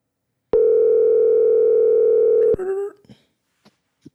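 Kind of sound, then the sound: signal or alarm, phone call ringing tone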